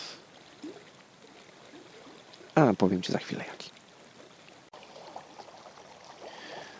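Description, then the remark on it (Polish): Water flows with a steady, gentle murmur throughout, soft. A person speaks briefly over it partway through, then the continuous burbling carries on alone. “No jednak woda taka szumiąca trochę, przelewająca się gdzieś uspokaja dosyć mocno.”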